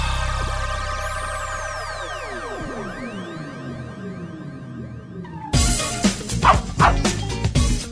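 A dog whimpers and whines in rising and falling tones for several seconds, then breaks into a loud, rapid run of barks near the end, with no talking.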